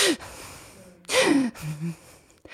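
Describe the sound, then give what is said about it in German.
A voice imitates the shaky, sob-like breathing of someone trying to hold back crying: a sharp gasp, a pause, then a longer broken inhale with wavering vocal tones, moderately loud, with no words spoken. “so so zu atmen, weil ich ganz versucht habe, mich noch irgendwie zusammenzuhalten.”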